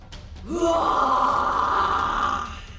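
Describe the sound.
A person voices a drawn-out, loud lion's roar, imitating a big, handsome lion, the king of the pride: a single sustained growling cry that swells in and holds steady for about two seconds before fading, with no other talking.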